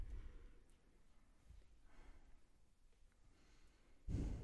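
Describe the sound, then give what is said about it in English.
Slow, deep breathing of a person thinking, soft airy inhales and exhales drawn out over several seconds, ending with a louder, heavier breath. No one speaks. “That's my thinking, breathing. uh, Deep breathing.”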